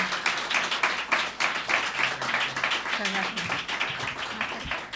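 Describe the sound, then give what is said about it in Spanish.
A studio audience applauds to welcome guests to a programme, many hands clapping in a dense, continuous patter that stays loud and even throughout, with a faint voice briefly audible underneath. “Eh, le damos un aplauso público, que os parece?”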